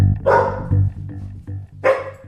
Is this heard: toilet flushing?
no